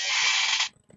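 A chair creaks loudly in one sustained, grinding creak lasting well under a second, then cuts off into near silence with a few faint low thumps.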